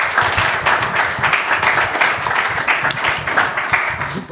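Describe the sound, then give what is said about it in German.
Steady applause from an audience after a panel discussion, many hands clapping in a dense, continuous crackle at a fairly loud level throughout, with a faint murmur of voices underneath. “Und äh, wir machen gleich weiter mit dem nächsten Panel, aber erstmal den Applaus für das.”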